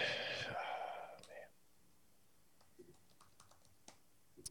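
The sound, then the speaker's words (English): A breathy exhale at the start, then a quiet stretch broken by a handful of soft, irregular clicks of keys being tapped on a computer keyboard. “I was following the typing along the way.”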